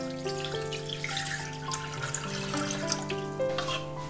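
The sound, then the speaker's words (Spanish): About one litre of water pours steadily into the bowl of a Thermomix kitchen robot, continuous for several seconds, with a resonant tone that rises in pitch as the container fills. No one speaks. “Pongo aproximadamente un litro de agua en el vaso.”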